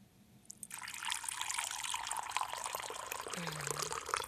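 Hot water pours in a steady, splashing stream that starts after a brief quiet moment and continues fairly loudly, with no voices.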